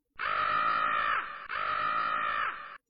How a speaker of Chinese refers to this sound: 乌鸦又叫了两声，此刻已经距离莫凡非常近了。